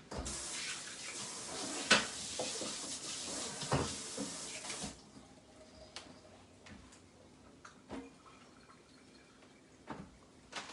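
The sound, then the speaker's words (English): Batter sizzles in a Dash Mini waffle maker, a steady hiss that fades after about five seconds to a quieter crackle with scattered small ticks and pops. No one speaks. “You can hear it sizzling.”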